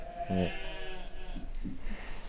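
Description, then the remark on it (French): Newborn lambs about a month old bleat against a steady outdoor hiss: one loud, quavering cry near the start, then a couple of shorter, fainter bleats. No one speaks. “c'est des moutons, tu vois. Les jeunes moutons.”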